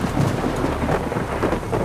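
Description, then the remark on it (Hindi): Heavy rain pours steadily amid cracking lightning while deep thunder rumbles underneath, a dense, continuous storm wash with low booming swells and no voices. “कड़कती बिजली में बारिश के बीच उस पत्थर को देखने भर से ही किसी भी इंसान का हलक सूख सकता है”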